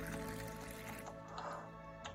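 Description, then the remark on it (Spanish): Water pours steadily into a basin for washing feet, a continuous splashing stream with a faint rising, ringing tone as it fills, fairly quiet for about two seconds. “Luego echa agua en la jofaina y se puso a lavarle los pies a los discípulos”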